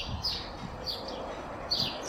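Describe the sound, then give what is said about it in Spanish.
Birds chirp in short, high bursts every second or so against a steady wash of outdoor background noise, with a cluster of quick calls near the end. “escucha los pájaros, escucha los coches.”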